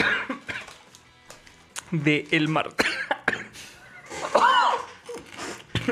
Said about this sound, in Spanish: Tómala la cheve, güey. Ay, me estoy ahogando, amigos. Tómala la cheve, güey.